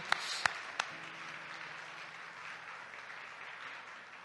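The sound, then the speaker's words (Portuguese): A church audience breaks into applause for Christ: a few sharp, separate claps at first, then a steady, fairly soft wash of many hands clapping that holds evenly to the end, with no voices. “Dê um aplauso a Cristo, por favor.”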